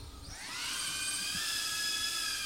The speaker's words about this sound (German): Sehr cool. Hört man schon? Die Drohne startet.